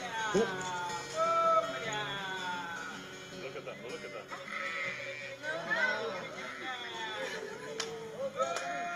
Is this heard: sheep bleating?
yes